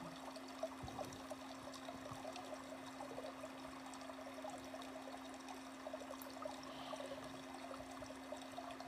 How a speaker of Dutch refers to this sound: En er is heel veel water. Als je goed luistert, kan je het water ook al horen.